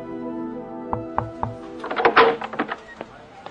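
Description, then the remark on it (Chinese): Three quick, evenly spaced knocks thud on an office door over a steady, low musical drone, followed by a brief burst of rustling and a few lighter taps. “第二天，汪若山正在办公室，有人敲门。”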